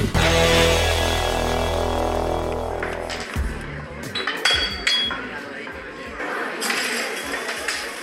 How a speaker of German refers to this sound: Ja, so klingt das, wenn man in einer Bar ist. Leute reden, Gläser klirren, Drinks werden eingeschenkt, Musik im Hintergrund. Diese Baratmosphäre geht uns jetzt allen schon seit guten vier Monaten ab.